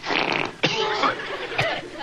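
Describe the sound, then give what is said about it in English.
A cartoonish fart sound effect from a character who ate chili peppers and refried beans, a sputtering, brassy blast with a couple of sharp bursts, loud, with no talking over it. “Well, you see, for my last meal, I had chili peppers and refried beans. Oh, oh I know, I know. and uh, I just broke wind.”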